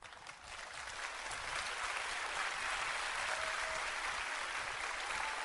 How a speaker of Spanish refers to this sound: ¿Sí? Aló, ahí se aplauden todos, ¿no?